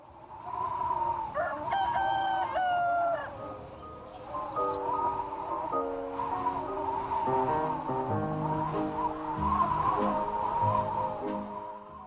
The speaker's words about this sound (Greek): Ένας κόκορας που δεν έπαψε ούτε στη χτεσινή κοσμοχαλασιά και ρίχνει τα δικαιώματα της ζωής.